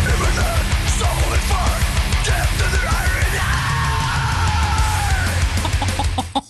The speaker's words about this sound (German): Es gibt ein neues Death Metal Projekt, das heißt … und das klingt so.